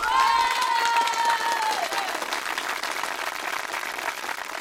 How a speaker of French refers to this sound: Tout est calme autour de lui, personne aux fenêtres. En tout cas, pas depuis la salve d'applaudissements qui a retenti à 20h ce soir, comme tous les soirs.